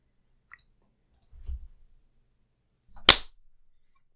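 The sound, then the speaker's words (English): One loud, sharp hand clap, made to sync a recording, rings out and fades quickly, preceded by a few soft, low thumps and faint clicks. No one speaks. “Uh, let me know which one to clap on.”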